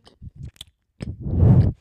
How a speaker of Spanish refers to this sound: Espera. Estoy masticando algo duro.